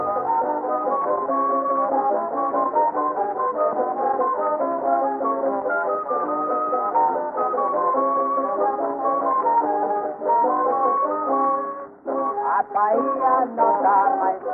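An old 1920s Brazilian song recording plays throughout, thin and muffled with no crisp highs, a steady melodic texture of voice and instruments that briefly drops out before resuming.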